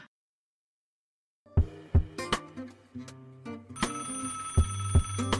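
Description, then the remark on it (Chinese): After a short silence, a melodic electronic phone ringtone signalling an incoming call-waiting call plays, with bright repeating notes over punchy low beats, fairly loud and with no voices. “您有一个插播来电。”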